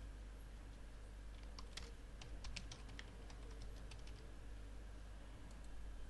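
Quick, light keystrokes tap on a computer keyboard in an uneven burst as a password is typed in on a sign-up page, over a steady low hum, with no one talking.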